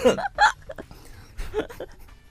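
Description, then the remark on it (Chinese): Two sharp, loud coughs in quick succession, then a pause and a few softer, shorter coughs trailing off, with no one speaking. “我咳嗽一下”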